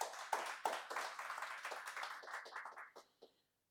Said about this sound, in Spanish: Un aplauso para nuestro Señor, vamos a orar.